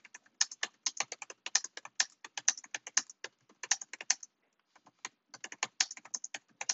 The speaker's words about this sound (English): I type loud, shut up.